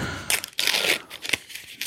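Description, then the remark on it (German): Crisp crinkling and rustling of paper packaging being pulled open as new silver Apple AirPod Pro headphones are unboxed from their Apple box, in several quick bursts over about two seconds with brief pauses between them. “Da ist Papier.”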